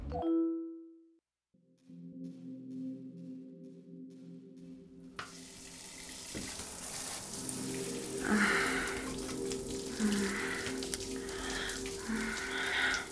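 shower water running

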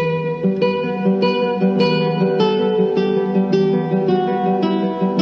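clean electric guitar playing

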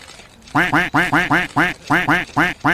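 duck quacking

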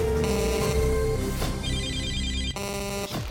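answering machine beep

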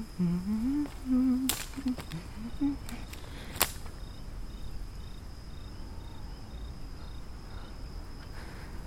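night

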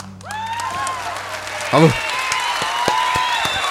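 applause

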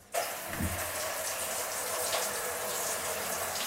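shower water running

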